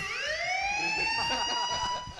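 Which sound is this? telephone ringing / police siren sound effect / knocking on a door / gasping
police siren sound effect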